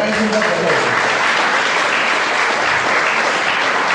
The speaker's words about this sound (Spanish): Entonces este aplauso ahora es para ustedes, por favor.